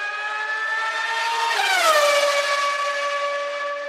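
A race car engine screams past at high revs, its pitch dropping sharply midway as it passes by, then fading slightly as it pulls away. No voices.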